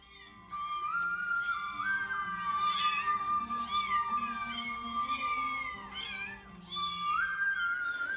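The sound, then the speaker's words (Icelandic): A cat meows over and over, a run of drawn-out, rising and falling mews with no pauses between them. A steady high tone hums underneath the whole time. “Fornegyftar nefndu mörg dýr eftir því hljóði sem þeir fannst þau gefa frá sér, má eða mjá.”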